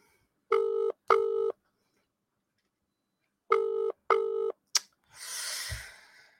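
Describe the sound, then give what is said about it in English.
A telephone dial tone on the line sounds in two double-pulse bursts separated by a pause, followed by a sharp click and a brief rush of noise, with no one talking. “In, in America, the dial tone sounds different.”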